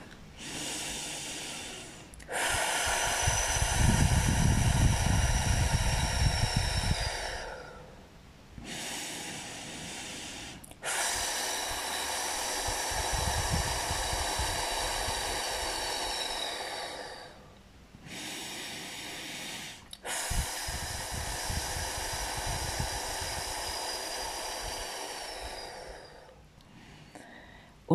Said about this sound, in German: Die Frau hält in, mitten im Satz, mitten in der Aktion und muss sich auf das Wehenatmen konzentrieren. Und das kann dann unter Umständen so klingen.